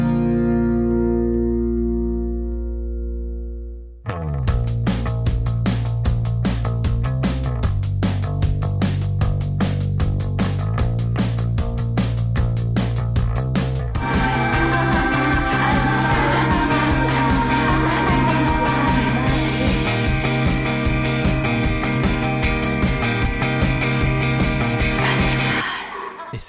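A pop song plays, opening with a few seconds of sustained, droning chords before a steady, driving beat kicks in; the arrangement thickens about halfway through and stays loud to the end.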